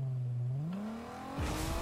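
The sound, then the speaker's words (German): A car engine revs up, its droning pitch climbing steadily, then a brief whooshing burst near the end as it pulls away. No one speaks. “Hast du dir einfach ein Auto gekauft?”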